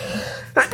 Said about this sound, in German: Gesundheit.